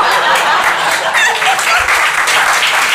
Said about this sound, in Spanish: ¿Qué aplaude, señora?